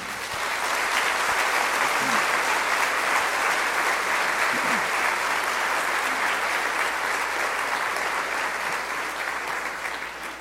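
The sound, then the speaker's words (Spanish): Sustained, loud applause from a large crowd, a dense steady wash of clapping lasting about ten seconds and fading slightly at the end, with a few faint voices underneath. “Encomendémoslo y démosle un fuerte aplauso, esté donde esté.”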